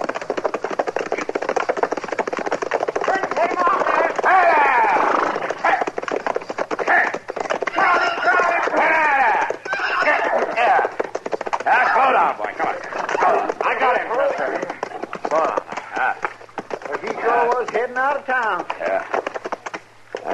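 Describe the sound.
A runaway horse gallops past, its hooves pounding in a fast, steady beat, half-buried beneath loud, overlapping voices and excited shouting that continue throughout.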